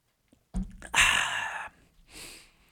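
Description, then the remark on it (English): A short slurping sip from a drink, a breathy intake lasting under a second, followed by a softer exhaling breath; no talking. “Sip break.”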